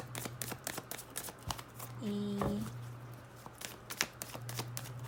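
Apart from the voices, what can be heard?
shuffling tarot cards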